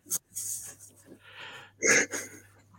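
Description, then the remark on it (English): A dog sitting across the room, wanting attention and patting, snorts and makes wheezy, whining noises in a few short breathy bursts, with a sharper snort near the end over a faint low hum. “he just wants attention and he's sooking at me because I'm not patting him.”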